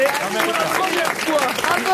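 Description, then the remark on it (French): An audience applauds after a told joke in a steady, dense wash of clapping that holds its level for the full two seconds, with voices talking and calling out over it. “Je ne crois pas qu'il batte en applaudissements euh, Caroline Diamant, mais quand même, il est, on va dire, sur une démarche du podium.”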